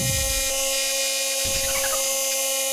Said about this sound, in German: Äh, oh, was ist das? Ach, Mann, da muss ich draufdrücken. Da, warte. Hier noch einmal bohren.